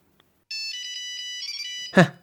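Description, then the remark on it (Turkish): A phone ringtone of an incoming call from a radio show listener chimes steadily for about a second and a half in a bright, tonal melodic pattern, then cuts off as a short burst of voice breaks in. “Heh arıyor.”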